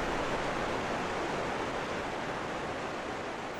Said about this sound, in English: And uh, just like there's like a sound of rushing water and this kind of like pulsing blue light coming up from up ahead.